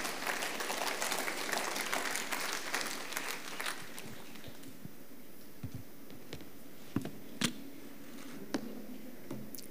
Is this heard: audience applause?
yes